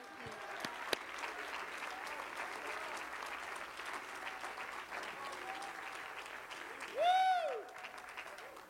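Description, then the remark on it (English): A church audience applauds in praise of God in a steady, dense wash of clapping that holds for several seconds, with a brief rising-and-falling whistle or cheer swelling over it near the end. “Won't you clap your hands and give God some high praise?”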